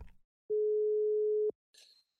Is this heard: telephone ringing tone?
yes